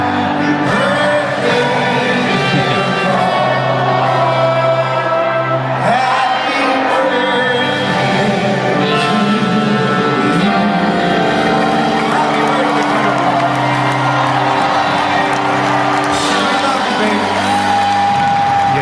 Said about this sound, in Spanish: Tengo 60.000 personas acá en Nueva, Jersey que te quieren cantar el feliz cumpleaños.